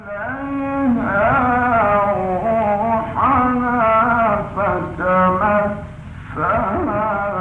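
A solo male voice chants in long, sustained melodic phrases with rich harmonics: an old, band-limited recording of Quran recitation by Sheikh Muhammad Rifaat, famed as one of Egypt's four great Quran reciters. Steady and fairly loud, with brief pauses between phrases.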